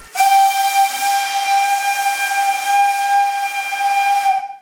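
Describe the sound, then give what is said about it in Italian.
A steady, loud jet of hissing steam with a shrill whistling tone on top, sustained evenly for several seconds before cutting off abruptly. No voices. “a 100 gradi i legami sono troppo fragili e l'acqua diventa un gas, il vapore.”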